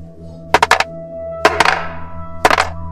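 six-sided die being rolled

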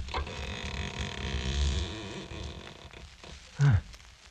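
door being pushed open

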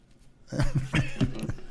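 cough

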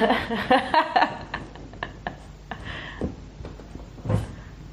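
refrigerator door being opened

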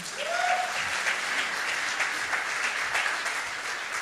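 audience applause

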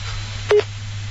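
telephone busy signal

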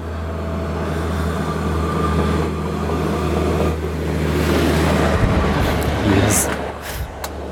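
train passing by

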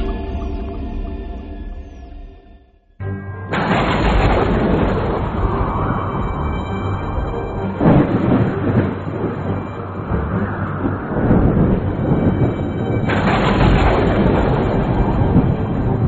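thunderstorm with rolling thunder

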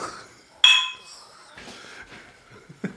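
beer glasses clinking

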